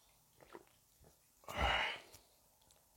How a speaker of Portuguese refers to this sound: Deixa eu tomar água porque a salivação tá comendo.